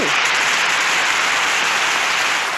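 Loud, sustained applause from a crowd, a dense steady wash of many hands clapping with no gaps or distinct beats, holding at an even level throughout.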